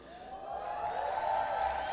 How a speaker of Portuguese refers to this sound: Pode ser melhor esse aplauso aí? Glória a Deus.